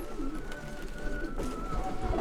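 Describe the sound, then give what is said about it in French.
Pigeons coo in soft, low, throaty murmurs that roll on continuously for a couple of seconds, set against a steady background hum with no one speaking. “j'ai remarqué que ces pigeons-là, là-bas, il n'y en a pas.”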